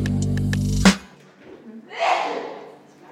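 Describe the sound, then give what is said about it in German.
A short musical jingle cuts off, and after a brief pause comes a single loud, breathy sneeze, a sudden hissing burst that fades quickly. “Gesundheit!”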